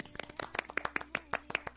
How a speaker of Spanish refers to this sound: Bien, un aplauso para ellos.